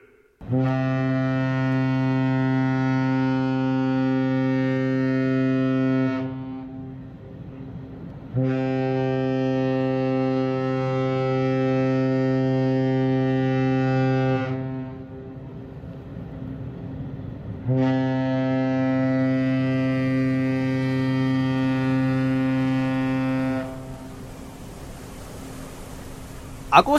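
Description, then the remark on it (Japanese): A cruise ship horn sounds three long, deep blasts, each about six seconds with short pauses between, loud and steady with rich low harmonics, followed by faint noise. “このコーナーはアコラジックみんなで豪華客船に乗り、世界一周旅行をするコーナーです。”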